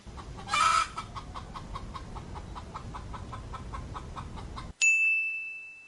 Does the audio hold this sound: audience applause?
no